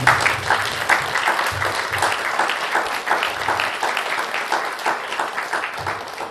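An audience gives a big round of applause for a presenter after a talk, a dense, sustained wash of many hands clapping at an even, loud level throughout with no speech over it.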